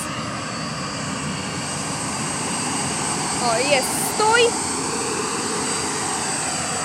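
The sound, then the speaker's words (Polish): A propeller aircraft engine drones steadily throughout as the plane taxis at an airport, a loud, even rumble, while a man briefly calls out a few words over it near the middle; the pilot then sets the brake and shuts off the engine. “I teraz zaciąga hamulec i gasi silnik.”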